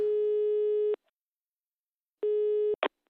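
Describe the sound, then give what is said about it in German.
A steady electronic telephone tone plays for about a second while calling the Department of Defence, Civil Protection and Sport, pauses, then sounds again briefly before a click cuts it off; no one speaks. “Und haben das Telefon in die Hand genommen.”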